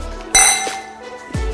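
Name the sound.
wine glasses clinking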